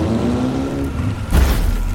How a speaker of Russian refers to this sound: Река ощетинилась торосами. Это снесенный ветром ниже по течению лед. Снегоход объезжает их по невидимой кривой.